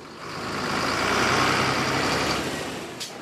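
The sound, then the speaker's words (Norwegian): A heavy, fully loaded truck imported from China rumbles past at a copper mine in Zambia, its engine noise swelling to a broad roar and then fading away, with a short faint click near the end. “Lastebiler importerte fra Kina ruller av gårde med fulle lasteplan, for her skal det utvinnes koper.”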